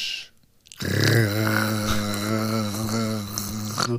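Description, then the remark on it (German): A voice imitates the warp core of the starship Voyager: after a brief pause, a low, steady droning hum with a buzzy, slightly wavering tone holds for roughly three seconds. “Und der der Voyager?”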